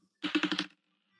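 Dropped dice clatter across a tabletop in a quick burst of about five sharp clicks over half a second, then stop. No one speaks.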